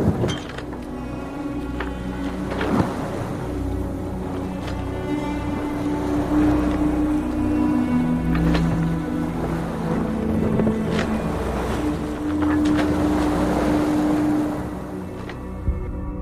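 A boat's engine drones steadily as it moves across open water, with wind buffeting the microphone and sea noise rumbling throughout; no one speaks.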